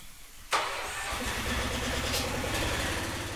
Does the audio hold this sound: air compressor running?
yes